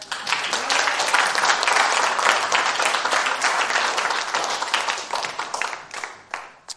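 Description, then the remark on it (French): A crowd applauds steadily for several seconds, dense overlapping claps, then the clapping thins out and fades near the end. “On les applaudit.”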